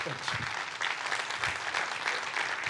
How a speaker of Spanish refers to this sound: Denle un fuerte aplauso a Dios.